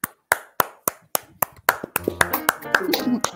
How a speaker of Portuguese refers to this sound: Palmas, hein?